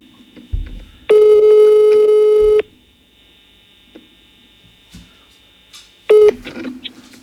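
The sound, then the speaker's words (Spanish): A telephone call ringing out: a loud, steady electronic ring tone holds for about a second and a half, then after a long pause a second ring begins and cuts off quickly. No talking. “Pues, bueno, vamos a llamarla y vamos, a ver si le podemos decir que se invita a Que nos mande un globo de unos cafés.”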